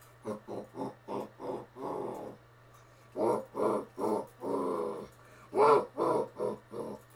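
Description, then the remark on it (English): A man's voice imitates a demon's growl: a string of short, guttural snarling bursts, then longer rasping growls, loud, with brief pauses between them and no words. “um, then there's demon.”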